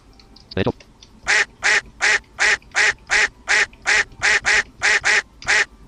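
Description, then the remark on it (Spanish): A video game duck quacks about a dozen times in a quick, steady rhythm, each quack loud and evenly spaced, after a short sharp noise at the start. “Y tenemos un patito.”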